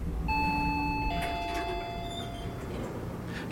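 An elevator chime from elevator E, going up to the top, the 30th floor, in the office building of Rodolphe Saadé's company. It rings two bright, sustained tones, one after the other, each slowly fading over a low steady rumble, with a brief soft clack at the very end.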